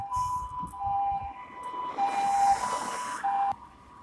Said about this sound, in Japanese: ちょっと一旦中断しました。救急車が来たもんで、今歩きながら撮ってるんですけれども